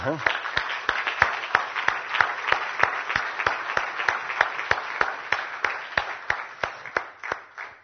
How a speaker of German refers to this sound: Und ich denke, dass wir allen, die dort mitgeholfen haben, mal einen kräftigen Applaus geben könnten.